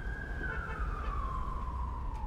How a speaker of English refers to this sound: As I leave Panos's office suite, we hear the traffic on Boylston Street and several floors below.